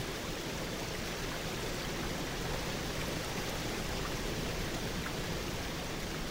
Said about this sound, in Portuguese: Estamos agora sentados em uma grande pedra, em meio às cascatas de Triberque, as mais belas de toda a Floresta Negra.